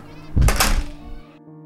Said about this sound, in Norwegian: Lærerne gikk inn i klasserommet sitt, og så lukket de døren.